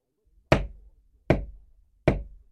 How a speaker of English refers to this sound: At midnight, there was a knock at the door of my house.